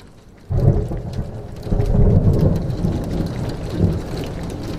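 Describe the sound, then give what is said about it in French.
Steady rain pours down on a rainy Sunday while deep rumbles of thunder roll in, swelling loudly after a quiet start and lingering as a low, continuous growl beneath the hiss of the downpour. “C'est un dimanche pluvieux, un sombre dimanche.”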